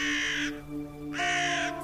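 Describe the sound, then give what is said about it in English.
Two harsh, raspy crow caws ring out in quick succession, loud, with a short pause between them and no voices present. “I have the crow. The crow speaks to me.”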